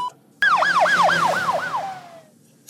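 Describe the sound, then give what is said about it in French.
A loud ambulance siren cuts in abruptly, whooping through five quick rising-and-falling yelps before sliding down into a fading tone. The ambulance is taking an injured man to hospital. No voices are heard. “Il fit un blackout et des policiers alertés l'envoyèrent en ambulance à l'hôpital.”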